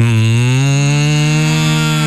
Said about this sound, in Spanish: Pero también en ocasiones se nos atraviesan la- las vacas.